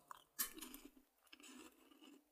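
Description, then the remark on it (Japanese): Crunchy arare rice crackers with nori seaweed, labeled Kyushu soy sauce flavor and Ariake nori salt, being chewed: a sharp bite followed by repeated crisp crackling crunches in an uneven rhythm, fairly loud with no talking. “あられなんですね。でもなんか、硬すぎず、なんかすごい食べやすい食感っていうか、気づいたらなんか無限に食べてるタイプのあられですね。”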